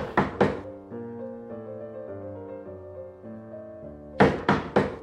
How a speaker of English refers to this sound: In this minute, come and knock on our door.